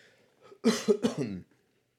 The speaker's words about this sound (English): I'm coughing and my throat is dry, but I'm drinking vodka.